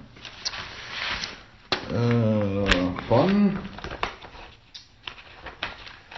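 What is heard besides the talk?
rummaging through papers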